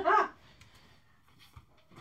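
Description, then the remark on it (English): A single loud bark from Daisy, a dog, rings out at the very start, followed by quiet with only faint background noise. “we can hear Daisy's barking like yeah. a crazy dog out there, and we need to comport ourselves.”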